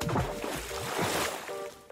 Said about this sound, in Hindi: ऐसा कहकर कुछ देर बाद तेनालीराम अपने बेटे के साथ एक बक्सा घसीट कर बाहर लाया और उस बक्से को बगीचे में ले जाकर कुएं में पटक दिया बक्से के पानी में गिरते ही छपाक से आवाज हुई